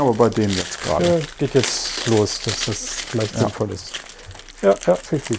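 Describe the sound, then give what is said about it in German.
Compostable foil wrapping around a pack of playing cards crinkles and rustles steadily throughout, while two people keep chatting over it. “Aber das ist trotzdem eine Folie außenrum.”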